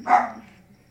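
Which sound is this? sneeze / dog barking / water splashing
dog barking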